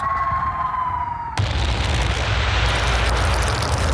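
An incoming artillery shell fired by Fritz whistles in a steady, slowly falling tone for over a second, then cuts off into a sudden loud blast that gives way to a sustained roaring rumble.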